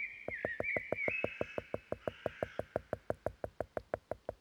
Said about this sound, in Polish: Ale największą była ta, w której leśnej muzyki słuchali. Lubili, kiedy dzięcioł zastukał.